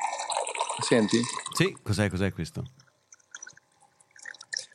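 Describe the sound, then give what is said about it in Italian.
Two voices talk briefly, then a water dispenser pump draws drinking water from a 10- or 15-litre container in a coworking space in Thailand, heard as faint, intermittent gurgling and sputtering that goes on alone for a couple of seconds. “Questo è il rumore di una pompa eh, dell'acqua che pesca dell'acqua potabile da un, um, un cilindrone di mm.”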